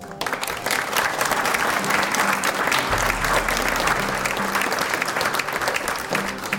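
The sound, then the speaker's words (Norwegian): An audience claps steadily for several seconds for the four members of a panel, a dense, even wash of many hands with no pauses. The applause stays loud and sustained throughout, with no clear voices standing out. “En applaus for dem.”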